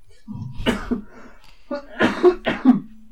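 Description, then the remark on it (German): A harsh coughing fit: several rough, hacking coughs in quick bursts, with short gasping breaths between them and a strained vocal edge, all fairly loud. “Ah, aber kein Podcast, in dem man nicht hustet.”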